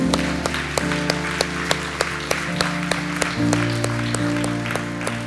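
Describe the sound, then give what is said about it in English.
A crowd applauds steadily over sustained keyboard chords after a group prayer, the clapping forming a dense, continuous wash with a few sharper claps poking through at a loose, regular pace. “Come on, can we put our hands together?”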